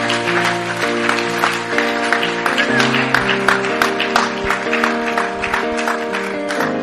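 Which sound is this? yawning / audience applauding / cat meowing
audience applauding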